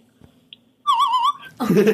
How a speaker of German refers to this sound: Hau nochmal einen kleinen Pfeif okay.